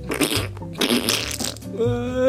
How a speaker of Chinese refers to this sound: 呃，我怎么突然又放屁了？呃，哎呦，抱歉，抱歉。”呃，想屁不臭，想屁不臭了。